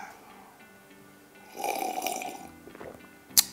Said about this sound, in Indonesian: Saya seruput dulu kopinya.